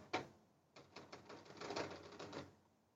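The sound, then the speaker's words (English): A lopsided phone with a huge camera bump rocks and rattles against a hard tabletop when touched, a sharp knock followed by a quick run of clattering taps that fade out after a couple of seconds. “That's the sound of me touching the note because it is so lopsided with that huge, huge camera bump.”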